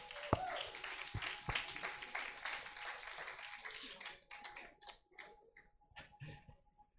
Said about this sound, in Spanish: Estamos todos acá. Dale denle un aplauso a los actores.